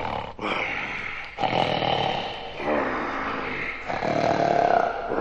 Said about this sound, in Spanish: Tan pronto hubo saciado su apetito, se acostó de nuevo y quedándose dormido empezó a roncar ruidosamente.